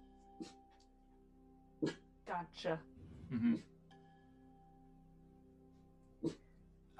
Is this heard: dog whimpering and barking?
yes